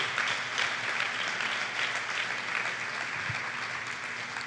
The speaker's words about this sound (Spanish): Démosle una ofrenda de palmas al Señor fuerte porque...